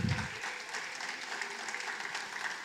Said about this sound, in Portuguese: Se você puder dar uma salva de palmas e tomar o seu assento.